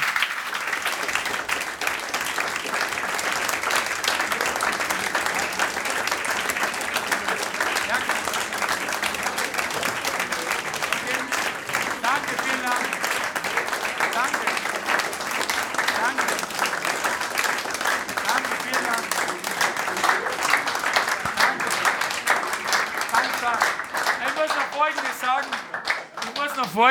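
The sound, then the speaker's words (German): Sustained audience applause after a speaker thanks them at the end of an evening talk, a dense crackle of many hands clapping steadily at an even, loud level for the whole stretch, with faint voices occasionally surfacing beneath the clapping. “Meistens ist mir Klatschen eher unangenehm, aber äh, ich muss noch Folgendes sagen.”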